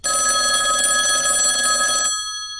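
An old-fashioned telephone bell rings loudly and continuously for about two seconds, a dense metallic clatter, then cuts off, leaving a brief shimmering ring fading away.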